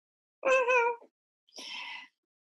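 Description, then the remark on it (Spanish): A person imitates a cat's meow twice, a clear drawn-out mew followed by a breathier, higher one after a short pause, alone. “Oye, tú, tú no tienes que maullar tampoco.”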